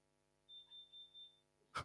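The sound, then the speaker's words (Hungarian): Four quick, high-pitched electronic beeps in an even rhythm, faint in the background, followed by a brief soft clatter. “valami csipognál a háttérben, valami terrorizmus gyanús.”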